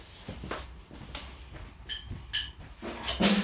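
A beer bottle being pried open with a stick: a series of sharp taps and bright glassy clinks, scattered irregularly over a few seconds, with no voices.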